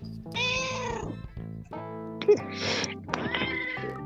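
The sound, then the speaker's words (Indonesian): A cat meows loudly, several drawn-out, wavering cries in quick succession, strained and insistent, with a brief sharp noise partway through. “Oh, ini mau ikut kucing podcast nih kayak podcast.”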